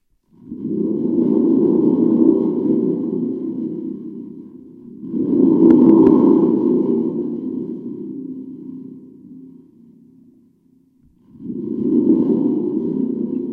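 A thunder tube spring drum shaken in three loud bursts, each a booming, metallic rumble with a springy ring that slowly fades before the next shake; no voices.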